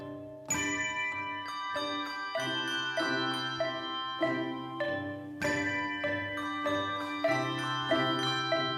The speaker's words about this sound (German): 13 Frauen und Männer stehen bereit und blicken auf ihren Dirigenten. Allen Beteiligten im Haus, auch den Nachbarn ist klar, der Nürnberger Handglockenchor beginnt seine Probe unüberhörbar.